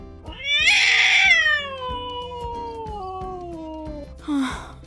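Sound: frightened cat meowing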